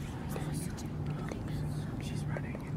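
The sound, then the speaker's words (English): Soft, breathy whispering voices murmur continuously over a low, steady hum, the hushed sibilant bursts overlapping without forming clear words, creating an eerie atmosphere. “whispers at first.”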